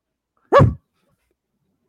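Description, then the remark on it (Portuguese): A person imitates a single sharp dog bark, loud, followed by silence and the faint start of another sound at the very end. “não, cachorro, é não cachorro, é pô. é cavalo. Cachorro.”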